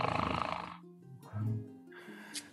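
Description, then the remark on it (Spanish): A person imitates the growl of Agnesberg, summoned in the form of a wolf, with low, rumbling vocal snarls in a few short bursts, fairly loud, with no ordinary speech. “Y Magnus, eh, nada más por, pues como para no quedarse atrás, invoca a Agnesberg en forma de lobo.”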